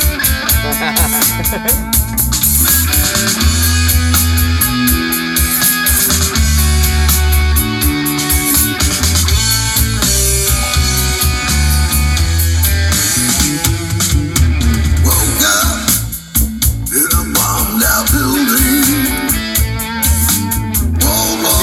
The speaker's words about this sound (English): It's the theme song for this podcast. We played it on Ziggy's boat